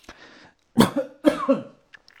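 A person who choked while talking coughs in a short fit, a soft breathy hack followed by two harsh, loud bursts with voiced, rasping tails, then a small throat sound as it settles.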